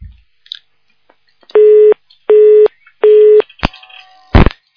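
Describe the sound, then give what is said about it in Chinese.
A dropped-call telephone tone on a radio call-in programme as a listener's call cuts out: three identical, evenly spaced mid-pitched beeps, loud and buzzy, followed by a couple of sharp clicks and a brief rustling thump as the line cuts off. “哎呀，电话都跳掉。”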